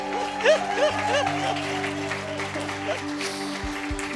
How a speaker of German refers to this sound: Jetzt kommt der Applaus.